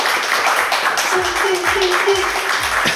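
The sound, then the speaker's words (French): Loud, steady audience applause for the guest fills the whole stretch, a dense wash of clapping mixed with crowd shouts and cheers, with no pause or break. “Je vais vous demander d'applaudir …, s'il vous plaît, faire un maximum d'applaudissements pour ….”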